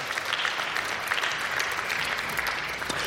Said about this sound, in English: Can we just receive him and give him a round of applause for blessing us this Sabbath.